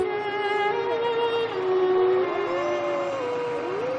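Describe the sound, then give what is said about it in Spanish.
Heavy truck engines drone steadily at night as militiamen manoeuvre them in a courtyard, the pitch climbing and dropping as they rev up and ease off several times over a few seconds, with no voices. “Los milicianos empiezan a maniobrar en el patio. tardean la noche los motores de los camiones.”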